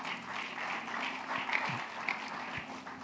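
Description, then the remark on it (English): A church audience gives a clap offering to the Lord Almighty, a dense, steady patter of many hands that holds at an even, moderate loudness for about three seconds, with no voices standing out above it. “If the Lord Almighty clap offering.”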